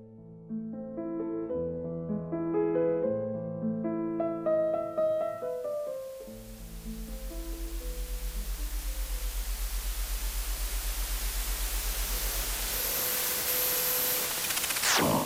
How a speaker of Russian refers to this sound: Мы решили показать вам пример того, как зашумляется и расшумляется картинка, но на музыке.